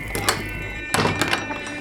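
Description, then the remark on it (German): The thick wooden door of a log cabin thuds shut as a hunter slips out into the open, a dull knock followed a moment later by a cluster of deeper, resonant thumps, with no voices. “Mit einer fließenden Bewegung lud der Jäger seinen Blasterkarabiner, ehe er durch die dicke Tür der Blockhütte ins Freie huschte.”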